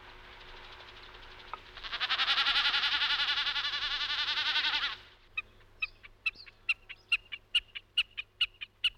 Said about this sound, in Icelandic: Þetta var Hrossagaugur.